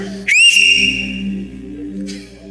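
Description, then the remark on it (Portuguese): During a church vigil, someone gives a single loud, sharp whistle to rouse people who are dozing; it rises quickly to a high sustained pitch and holds for about half a second, with a low steady hum underneath and a brief hissy burst afterward. “De vez em quando eu vou dar uns berros assovio, porque eu estou vendo gente dormindo fazer assim, ó.”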